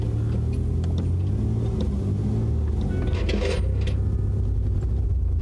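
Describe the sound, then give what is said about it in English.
Steady, continuous engine drone from inside a truck cab, a low throbbing rumble that holds even throughout, with a few faint rattles and clinks from the cabin mid-way. “If shit sounds different, it's because I'm in my fucking truck”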